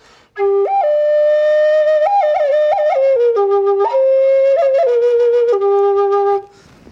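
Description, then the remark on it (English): A G flute plays a short, steady melody, notes sliding and stepping between pitches with ornamented turns, sustained for several seconds with no talking. “But it's like a G flute. So different sounds like this.”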